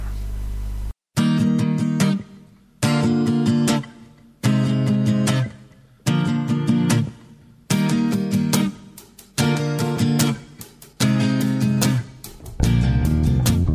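A slow, six-minute Celtic-flavored ballad plays steadily, its warm sustained chords swelling in a regular rhythm of repeated phrases, with no clear singing standing out over the instruments.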